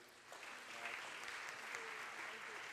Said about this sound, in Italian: Un applauso, auguri.